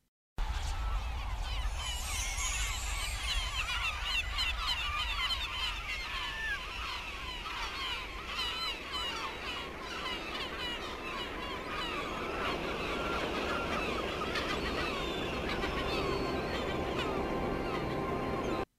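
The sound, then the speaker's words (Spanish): A flock of seagulls calls continuously overhead, their overlapping cries and squawks layered thickly against a steady low rumble, moderately loud and unbroken throughout. “De hecho, como los sonidos indican, esos primeros animales eran gaviotas volando.”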